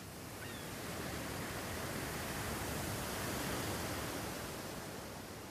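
Sea waves wash steadily onto the shore, a broad continuous rush of surf that swells gently in the middle and eases off again, with no voices.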